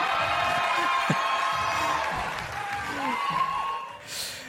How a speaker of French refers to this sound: mais derrière, il y a tous les gens qui, euh, qui t'applaudissent, qui te félicitent et tout.